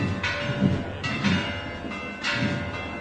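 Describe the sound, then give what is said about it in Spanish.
Cathedral bells pealing during the Virgen de la Cinta festivities as members of the solemn procession enter the cathedral, in a steady rhythm, roughly one bright, ringing strike every second, with a sustained metallic hum lingering between the strokes and no voices. “Ya escuchamos el replicar de campanas”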